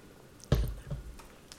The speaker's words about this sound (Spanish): ya voy a tomar un poquito de agua.